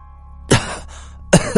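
A man coughs twice, two harsh, loud bursts separated by a short pause, the second followed by a quick catch of breath, with a low steady hum underneath.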